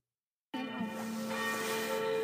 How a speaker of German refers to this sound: So, es ist 18 Uhr, wie man auch äh, an den Kirchenglocken hört.